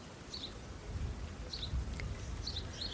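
Steady patter of rain on a Velux roof window fills the background while small birds chirp in short, bright bursts, repeating several times. No one speaks.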